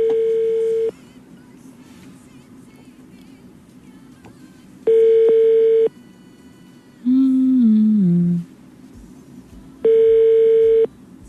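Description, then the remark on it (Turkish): Telephone call tones from a call being placed again to a radio show listener: three steady, one-second ringback beeps spaced about five seconds apart, with a brief stepped series of falling tones before the last beep. No voices are heard. “Bir daha çağırıp kapatıyorum.”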